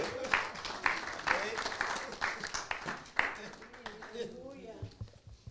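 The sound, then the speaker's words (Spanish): An audience claps together in a dense, steady burst of applause given to 'the One who lives', mixed with cheering voices, fading out over several seconds as a single voice begins to come through. “Dele el aplauso al que vive.”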